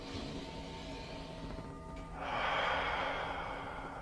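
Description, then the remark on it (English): A quiet inhale through the nose for about two seconds, followed by a louder, breathy exhale out through the mouth, done as circular breathing. No talking. “Breathing in the nose, out the mouth is circular breathing.”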